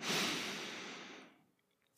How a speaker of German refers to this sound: Oh, ja, fühlt sich ganz gut an. Oder wie, wie fühlt sich sowohl, also wie hört sich das an, wenn jemand in euer Ohr atmet? Ist das eigentlich angenehm?